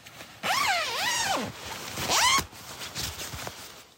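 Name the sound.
tent zipper being pulled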